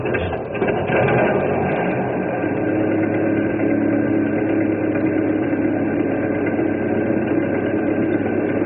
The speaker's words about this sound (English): I'll crank up this old engine and we'll cross over and pick him up.